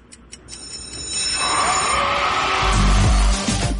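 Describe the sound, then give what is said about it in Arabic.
A quiz bell rings with a quick, bright metallic trill at the start, then gives way to a swelling wash of noisy sound and low rumble that grows louder toward the end. “خلاص مات الجرس”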